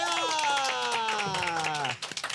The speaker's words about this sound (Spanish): tenemos aquí a un invitado de Archimega Mega Super Lujo que se oiga fuerte el aplauso para recibir al gran Drake Bell.